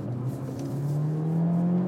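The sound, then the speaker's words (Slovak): A 300-horsepower car in sport mode accelerates hard through a corner, all four wheels digging in, its steady droning engine pitch climbing, loud for the whole stretch with no voices over it. “Ale to cítiť, to zahrabalo všetkými štyrmi do zákruty.”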